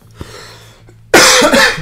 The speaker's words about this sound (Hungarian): Köhögünk ma itt össze-vissza. Egyszerűen nem kapok le. Nekem meg valami nagyon kaparja a torkomat.